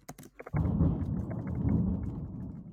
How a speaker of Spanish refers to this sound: Hombre, hasta acá se escuchó el, el trueno, ¿eh?